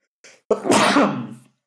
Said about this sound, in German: Gesundheit. Ähm, danke und Entschuldigung.